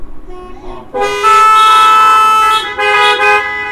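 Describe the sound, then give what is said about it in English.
A car horn blares loudly and up close in two sustained honks, a long blast followed by a shorter one after a brief gap, with no one talking. “Now that honk goes both ways.”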